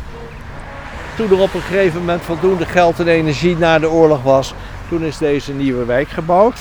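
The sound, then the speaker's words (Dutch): Steady road traffic on a ring road rumbles as it is approached, a continuous low wash of passing cars heard alone for a moment and then underneath a man speaking. “Kijk, je hoort het al, we naderen nu de rondweg.”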